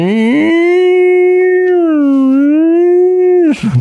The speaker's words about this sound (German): So, so Samples von marschierenden Soldaten und allein die Sirene am Anfang, die, die so, so, so ein, was ist das, so ein Luftangriffssirene.